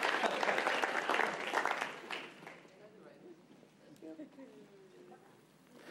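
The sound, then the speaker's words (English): An audience breaks into loud, dense applause for the team that lasts a couple of seconds, then thins out and fades while a voice begins speaking. “Come on, give, give our team a great big applause.”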